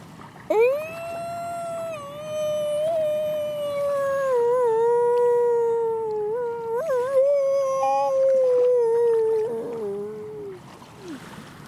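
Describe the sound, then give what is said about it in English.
Someone imitates a seal with a single long, wavering howl-like call, loud, holding for about ten seconds with small pitch wobbles before sliding down and trailing off. “That's my approximation of uh, seal noise.”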